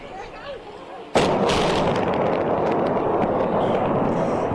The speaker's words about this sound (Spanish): Esta es la explosión que provocó la demolición de un puente de carretera en Kentucky. La brigada de demolición usó varias libras de explosivos para poder demoler el US 60 Cumberland River Smithland Bridge